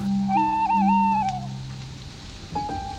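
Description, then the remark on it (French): Wolves howl far away at night as the moon rises, a long wavering cry holding steady before trailing off, then a second howl rising near the end, over a low steady hum with no talking. “Écoutez, écoutez, écoutez. Voilà, vache, on les entend. C'est loin, loin, loin, attends.”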